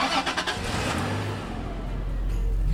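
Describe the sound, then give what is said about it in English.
The engine of a car bought used rumbles, opening with a few rough, choppy bursts before settling into a steady low drone as the car is driven out to find a used shoe organizer. No one speaks. “did you buy this car new?”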